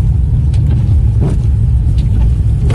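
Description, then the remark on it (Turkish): A car with its wipers running drives along a snowy road in Chicago in snowy weather at a steady pace, its engine and tyres making a constant low rumble with faint crunchy, hissing texture over the road surface. No one speaks. “Bak arabanın bak şu sesi bana dinlet ben karlı bir yolda ilerleyen araba olduğunu söylerim.”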